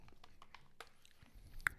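Quiet chewing on a snack bar: a run of soft crunchy clicks and mouth sounds at an uneven pace, ending in one sharper crunch, with no talking.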